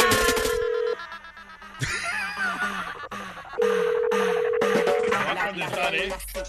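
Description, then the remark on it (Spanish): A phone ringback tone sounds in two steady, mid-pitched bursts of about a second each, separated by a pause, while people talk and laugh over the line. “Pues, a marcar, vuélvele a marcar.”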